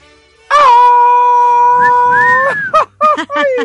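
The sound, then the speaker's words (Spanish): A loud, high-pitched Mexican grito shouted to celebrate Mexican Independence on 15 September: one long sustained cry held for about two seconds, then breaking into quick, warbling yelps that trill up and down, a single voice alone. “Oye, a ver, échate un gritito, un gritito.”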